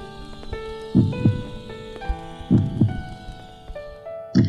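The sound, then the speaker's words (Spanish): A deep, muffled heartbeat thuds in slow lub-dub pairs, repeating about every second and a half beneath a sustained, layered tonal drone. No one speaks. “Escuchó los estallidos acompasados con el latir de su corazón”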